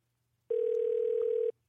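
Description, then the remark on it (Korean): A single telephone ringback tone of an outgoing call that goes unanswered, one steady electronic buzz lasting about a second, clear, sounding alone with no voices around it. “아, 받아야 되는데.”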